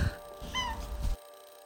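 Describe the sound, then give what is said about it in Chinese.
One of four pet cats gives one short meow with a bending, slightly nasal pitch, heard alone over a low background rumble that cuts off into silence. “我有四个室友，并且这四个室友不付房租，而且我还为他们从城里搬来了郊区，因为他们是四只猫。”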